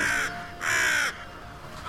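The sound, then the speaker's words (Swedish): A raven gives harsh, rasping caws in a forest, two drawn-out calls in quick succession and the start of a third, loud, with no one talking. “Men de här eh, klassiska skatorna och eh, korparna och sådär.”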